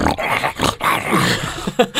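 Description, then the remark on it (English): A voice imitates a pug struggling to breathe: a fairly loud run of raspy, snorting wheezes and grunts lasting about two seconds, with brief catches between breaths. “they've been bred to the point where their faces are so squashed that they can hardly breathe anyway”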